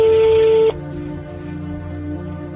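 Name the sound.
telephone being dialed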